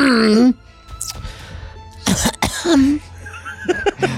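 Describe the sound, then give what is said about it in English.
A person imitates a harsh, hacking cough with voice, several rough bursts, mixed with short vocal sounds and a brief loud burst around the middle. “You hear a car door shut and a cough.”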